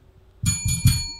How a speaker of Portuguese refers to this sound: Se vocês escutaram esse sininho tocando, né? Nós temos Sim. nos nossos episódios gravados, nas lives, né? O nosso sininho